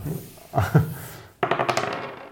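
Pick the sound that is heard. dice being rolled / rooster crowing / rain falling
dice being rolled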